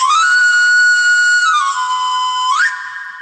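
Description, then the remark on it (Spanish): A knife grinder's whistle: a bright, loud run of piping notes that holds one pitch, slides down in steps, then sweeps sharply upward before fading, with no voices. “Esto es el sonido del afilador.”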